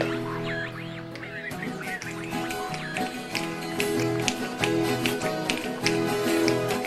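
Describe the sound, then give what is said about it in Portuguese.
Fandango folk music of the chelenas kind plays steadily from a small radio, sustained instruments layered with sharp, rhythmic tapping beats like stamping feet, continuous at moderate volume with no voices. “Essa música que vocês estão ouvindo é um fandango.”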